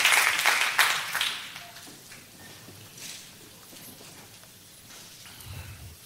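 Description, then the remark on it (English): A church audience claps their hands to the Lord, a loud burst of many hands at first that quickly tapers off into scattered claps and quiet room noise. “If you're thankful for the goodness of Jesus, put your hands together and clap to the Lord.”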